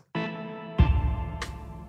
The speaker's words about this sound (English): Yeah, that humming sound. That is the sound of many megawatts of power triggering a whole cryptocurrency mining thing in the little town of Massena.